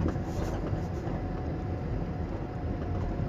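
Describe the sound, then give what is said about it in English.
A steady, low rumbling drone of a car's interior while driving to work, with constant road and engine noise filling the space and no one talking. “I'm in the car. I'm heading to work.”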